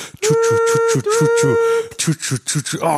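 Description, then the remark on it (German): A voice imitates a train rolling on rails, with quick, regular chugging pulses under a steady hummed tone, briefly broken, then continuing in looser rhythmic bursts. “Los, mach mal den, äh, hier, den, das Schienengeräusch.”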